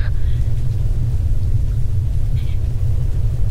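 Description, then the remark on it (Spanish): A deep, continuous rumble from an atomic bomb explosion rolls steadily throughout, heavy and low without letting up, with faint higher tones drifting briefly above it. “¿Sabes qué clase de explosión hace eso?”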